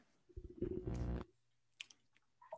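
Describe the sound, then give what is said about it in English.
A black-throated loon gives one loud, throaty call lasting about a second, a rich, low, moaning note, followed by a few faint chirps and rustles in the quiet background. “Number six contender the black throated loon.”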